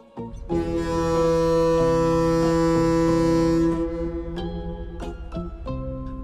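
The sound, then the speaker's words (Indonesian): The whistle of a ship crying in a harbour gives one long, steady, mournful blast lasting a few seconds, then tapers into softer lingering tones with a few faint clicks. No one speaks. “Kalau dia menangis, peluitnya berbunyi lirih dan sedih.”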